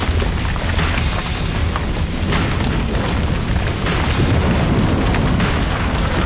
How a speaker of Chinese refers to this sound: 巨大的城市四分五裂地砸向刑天，爆发出巨大的破坏力。